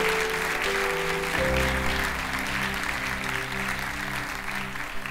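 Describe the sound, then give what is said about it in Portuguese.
A large crowd claps for the Lord steadily and continuously, a dense wash of applause while sustained organ or keyboard tones hum underneath. “Você pode aplaudir o Senhor por esse propósito maravilhoso.”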